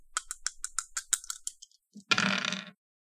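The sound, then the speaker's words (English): Dice clatter across a hard surface in a quick run of sharp clicks that speed up and fade, followed by a short, dense rattling burst. No one speaks. “Do I just roll the usual dice?”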